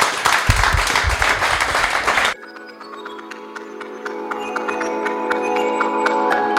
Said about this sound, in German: vielen Dank und großen Applaus. Dankeschön.